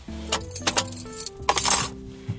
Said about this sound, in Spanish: Ah, las llaves no las escuchaba.